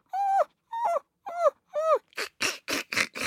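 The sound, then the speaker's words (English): A dog outside a door, wanting to come in, whimpers in four drawn-out, rising-and-falling whines, then breaks into a quicker run of five short, harsh yelps, with no one talking. “It's Blue. He's at the door. He wants to come in.”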